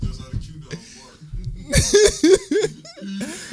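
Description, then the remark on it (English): A person makes a few loud, rough bark-like yelps in quick succession, imitating a dog, after some low murmuring and with a short vocal burst trailing off at the end. “I've never heard nobody bark like that.”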